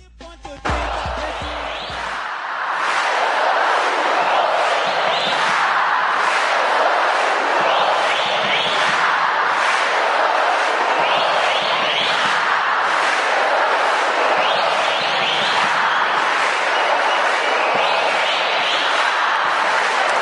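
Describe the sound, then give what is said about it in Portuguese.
Supporters of a football club from Rio Grande do Sul, Brazil, chant a funk song together, a loud, dense mass of voices that swells in after a few sharp knocks at the start and roars on steadily for about twenty seconds. “é quando uma torcida de clube gaúcho canta o que a gente vai ouvir agora.”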